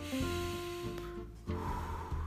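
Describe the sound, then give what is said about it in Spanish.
A deep breath drawn in and then let out, with an airy, rushing texture and no talking, done as a conscious breathing exercise. “Inhalar y exhalar.”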